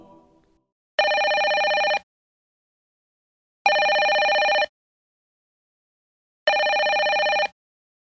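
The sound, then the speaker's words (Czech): A telephone rings three times in a steady, evenly spaced pattern, each ring about a second long with a bright, harmonic electronic tone, loud, separated by silence. “zazvonil telefon.”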